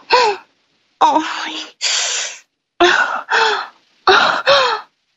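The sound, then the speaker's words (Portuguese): A voice makes a series of exaggerated, theatrical moans and gasps, staged as a fake orgasm moan on a show, seven short bursts in uneven rhythm, loud, with brief silences between them. “Temos agora o gemidão do … é, Show.”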